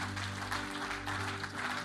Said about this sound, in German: Komm, lass uns, komm, lasst uns einen Applaus geben für jede Person. Für jede Person